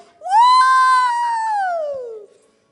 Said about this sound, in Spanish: Un grito de júbilo es